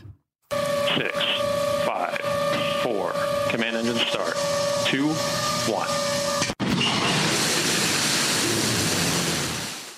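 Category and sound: vehicle, rocket launch roar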